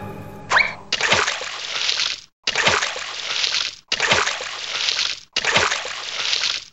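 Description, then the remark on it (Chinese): Four heavy splashes of a long chain of monkeys falling one by one into water, each a loud, broad slosh lasting over a second, separated by brief gaps, with a short sharp snap of a tree branch breaking just before the first. “一长串的猴子，一只一只，全都掉进了水里。”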